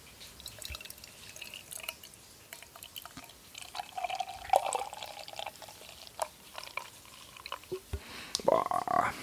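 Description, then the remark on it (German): Beer from a freshly opened 0.44-litre yellow and blue can pours into a glass with a fizzy, crackling hiss and scattered drips, the gurgling fill briefly rising in pitch midway and again more strongly at the end. “So, und einen schenken.”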